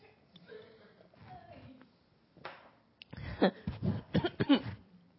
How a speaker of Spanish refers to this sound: Ay, me dio hasta tos.